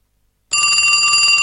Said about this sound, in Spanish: Me parece que está, está sonando el teléfono, bueno ¿está sonando?